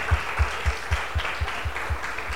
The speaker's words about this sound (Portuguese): E queria que vocês dessem outra salva de palmas que elas merecem, elas são top.